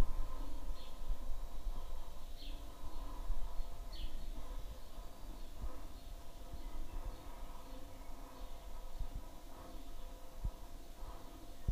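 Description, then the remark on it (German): Faint birdsong, a few short high chirps repeating every second or two over a steady low background hum, with no one talking. “jetzt hört ihr die Vögel im Hintergrund”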